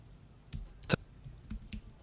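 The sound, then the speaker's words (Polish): Keys are tapped on a computer keyboard as text is typed in again, five or six quiet, irregular clicks with one sharper, louder stroke near the start, with no talking. “Spróbuj to wpisać jeszcze raz.”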